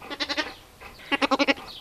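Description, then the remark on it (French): A pet lamb on a livestock farm in the drought-dry Los Pedroches valley, north of Córdoba, Spain, bleats twice, each call a loud, quavering, stuttering cry, with a short quiet pause between them and no other sounds around. “Le bel d'un agneau de compagnie est trompeur.”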